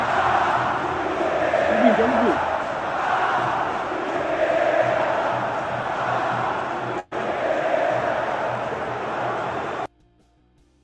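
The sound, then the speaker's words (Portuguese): Fluminense fans at the Maracanã stadium chant "Ah, é Vitor Pereira!" near the end of Fluminense's win over Flamengo, a loud, steady wall of massed voices that holds for about ten seconds, cuts out for an instant, resumes, then stops abruptly. “A coisa tá feia pro Flamengo e no Maracanã ontem, já na reta final do jogo, quando o Fluminense venceu o Flamengo, a torcida do Fluminense cantava: Ah, é Vitor Pereira!”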